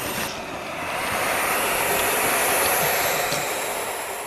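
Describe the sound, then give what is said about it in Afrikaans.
Harsh, steady hissing from barn owl chicks, a continuous static-like rasp that swells slightly and holds for several seconds, fairly loud with no talking. “Die nonnetjies uile klink soos 'n radio wat nie lekker opvang nie, maar net so.”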